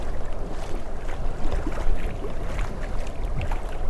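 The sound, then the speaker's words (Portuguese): Steady rush of sea water around the island of Paxos with a deep rumble underneath, like waves washing past a moving boat, continuous and fairly loud, with wind buffeting in the mix and no voices. “O relaxante som do mar nos embala nessa pequena jornada.”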